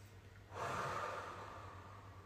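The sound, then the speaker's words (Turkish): A single long, deep breath in and out during a guided breathing exercise, with a soft, airy rush that starts after a brief pause and holds steady to the end, fairly quiet over a faint low hum. “Yaradan'ın sevgi ışık enerjisini içinize çekin ve verirken iyice salın enerjiyi.”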